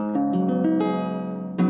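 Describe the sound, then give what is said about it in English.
A six-string ukulele-tuned instrument, tuned A D G C E A from top to bottom, has its strings plucked clearly one by one in quick succession, letting them ring together, then a final strummed chord. “the bottom four strings are just like an ukulele. It's tuned G C E A with the low G”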